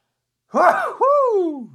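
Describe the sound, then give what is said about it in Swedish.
A single sneeze: a sharp, breathy burst that turns into a voiced, downward-sliding tail, fairly loud and lasting just over a second, with no talking around it. “Att jag ska bara nysa.”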